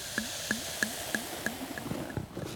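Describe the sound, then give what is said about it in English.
Champagne glugs out of a bottle during an interview, a steady series of about eight rhythmic gurgles that blur into a softer, fizzing trickle near the end. No one speaks. “Pour that out.”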